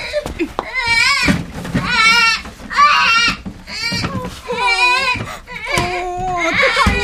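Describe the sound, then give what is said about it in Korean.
A baby wails loudly in a series of long, wavering cries, each broken by short gasping breaths, with no other sounds around it. “왜 그래, 아기야. 어, 여기서 울면 안 돼.”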